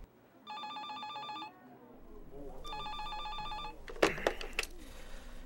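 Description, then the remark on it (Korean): An internal extension phone on an office desk in a personnel management department rings in two electronic trilling bursts, each about a second long with a pause between, followed by the clatter of the handset being picked up. “서류를 한참 검토하고 있는데 내선 전화가 울린다.”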